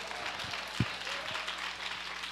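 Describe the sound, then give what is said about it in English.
An audience claps hands in a steady wash of applause, dense and continuous, with a few sharper low thumps standing out amid the clapping, responding to a preacher's call to clap if they got the point. “Now, if you got that, clap your hands and say, I got that, I got that.”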